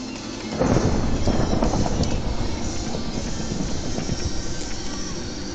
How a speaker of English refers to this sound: I created a tornado, it's an F5. You better be ready for this. Where's the tornado? Great God, I can't see the tornado. Do you see the tornado, dude? I can't see the tornado.